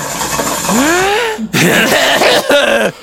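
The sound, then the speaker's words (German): A person imitates a wheezing cough, combining a wheeze with a cough: a strained, rising voiced wheeze, then a brief gap and a rough, raspy hacking burst, followed by a short groaning tail. “Na, meinst du, Keuchen? Keuchen ist ja irgendwie so. Und jetzt müssen wir das verbinden mit einem Huster.”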